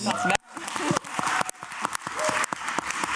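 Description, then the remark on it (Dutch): An audience applauds with dense, steady clapping that builds after a brief dip at the start. A voice is briefly audible at the very beginning, and the applause stays loud throughout. “Applaus.”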